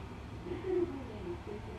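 A Kiha 40 diesel railcar (Kiha 40-352, train 2232D bound for Tomakomai) idles steadily at Samani station on the Hidaka Main Line in Japan before departure, its low engine rumble holding a constant throb with a faint hum riding above it and no voices present.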